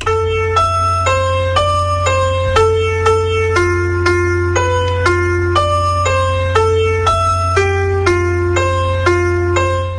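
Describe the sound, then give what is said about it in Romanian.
A slow, simple melody of clear sustained notes, roughly two per second, stepping up and down over a steady low humming drone; loud, with no voices. It is the tune written as musical notes on the buttocks of a tormented sinner in Hieronymus Bosch's painted hell, from around 1500. “Și evident că s-a găsit cineva care să interpreteze cântecelul de pe fesele Ce acestui păcătos chinuit Cât de în iadul imaginat de Ieronimus Bosch la 1500 și sunetul, adică sună așa.”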